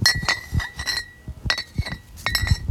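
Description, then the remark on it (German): Glass beer bottles clink together inside a blue bag outdoors in a garden, several bright ringing knocks in irregular bursts, with soft rustling and thuds of the bag being handled. “Er hat hier was in seinem blauen Beutel. Warte, es macht so Geräusche.”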